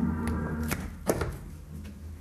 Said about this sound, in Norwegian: Nå er døra oppe. Nå lukker jeg igjen døra. Hvis jeg da lukker igjen det vinduet her i tillegg